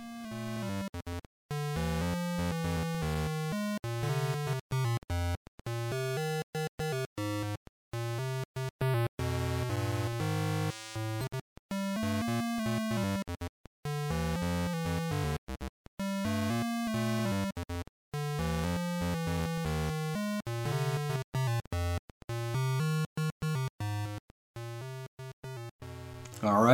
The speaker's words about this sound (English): Enjoy this. amazing music from uh, from Paperboy on Game Boy, and I'll be right back.